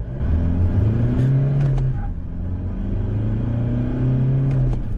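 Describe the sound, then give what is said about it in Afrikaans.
An Isuzu D-Max turbodiesel pickup (bakkie) engine revs up and eases off twice, its deep, rough growl rising and falling in loud, steady bursts with no one speaking. “Die D-Max se turbodiesel is egter grower en meer lawaaierig as sy teenstanders.”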